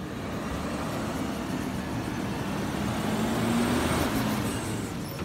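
A garbage truck rumbles steadily, its engine droning low with a slowly rising whine as it drives, under a constant wash of road noise and no voices.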